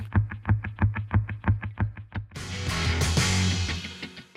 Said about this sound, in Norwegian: vi skal høre mer musikk. Her er … med …